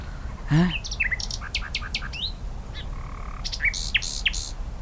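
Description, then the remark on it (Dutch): A common nightingale sings in a dune woodland in a varied burst of song: rising whistles, quick chirping notes and a sustained pure tone, over a low steady background rumble with no voices. “Het ontroert mij hoe uit zo'n klein vogeltje zo'n stemgeluid kan komen.”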